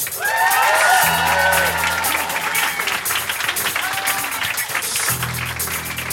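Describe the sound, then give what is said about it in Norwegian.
A crowd at Workwork in Trondheim claps loudly and steadily for several seconds to welcome Kristoffer Hivju, with whoops and rising cheers ringing out over the applause, most noticeably near the start. “Stor applaus!”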